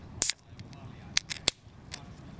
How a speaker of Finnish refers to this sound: Kuulostaa samanlaiset kuin suomalainen olut avataan.